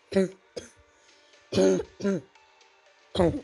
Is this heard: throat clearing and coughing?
yes